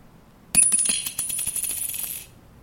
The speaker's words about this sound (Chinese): 对，来，这是五十块，好，这个是五十元的声音，所以。